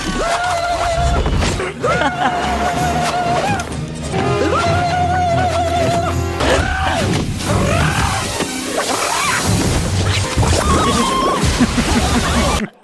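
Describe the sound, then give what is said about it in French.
A voice loudly imitates the high-pitched battle cries of Xena the warrior princess: a series of sustained, warbling yells with trilling wavers, repeated about half a dozen times over dense background noise. “est-ce que vous vous souvenez des petits cris qu'elle poussait quand même Là.”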